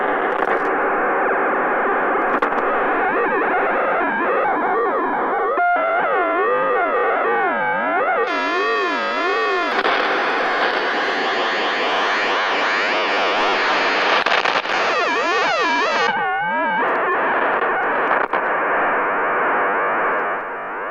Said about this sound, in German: Ja, und mit diesem System kann man natürlich ein Spielzeugfahrzeug am Boden fahren und zugleich hören, wie das Steuersignal tönt.